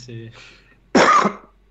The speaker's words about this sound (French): non, il tousse en fait.